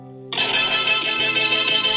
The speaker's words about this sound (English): So I, my phone's always on silent, but this is my main ringtone. Here we go. You ready?